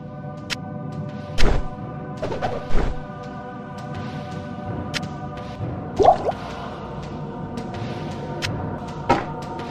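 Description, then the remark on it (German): Juicy liquid gurgles and squishy drips from a video game potion being moved back and forth, several short wet bursts at irregular intervals over a steady humming tonal background, with no talking. “Und das ist halt cool, wenn du halt das äh, saftige Gluckern hörst, wenn du eben so einen äh, Trank da hin und her schiebst.”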